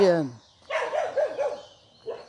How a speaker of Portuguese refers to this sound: Epa, tem um cachorrinho vindo aí na minha direção e eu estou aqui. Se ele estiver solto, eu tenho que parar, né? De quando acontece isso, os cachorrinhos aqui no condomínio, soltos, e a gente passa, eles vêm em cima da gente.